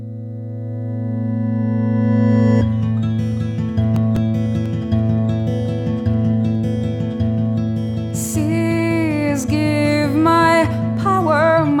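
A folk song opens on a sustained low drone, then steady strummed guitar joins around the third second. Later, a wavering, vibrato-rich violin melody rises over the accompaniment.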